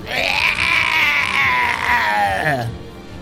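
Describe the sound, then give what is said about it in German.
A single long, wailing scream from a person acting out the pitiful cry of an old hag slashed across the chest by a knife in a game, loud and high-pitched, held for over two seconds before it wavers and slides downward into a broken whimper. “Sie nimmt 6 Schadenspunkte und schreit acht, einmal ganz äh, Schadenspunkte und schreit einmal ganz erbärmlich.”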